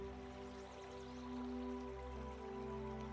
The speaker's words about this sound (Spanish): Te acercas al río y puedes escuchar el agua pura fluyendo por el río y el sonido del río te relaja más y más.